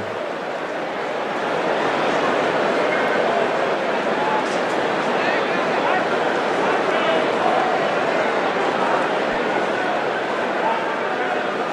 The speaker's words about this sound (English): This is the sound of the murmur, the crowd, low, steady rumble on a WGN Cubs game from 2019.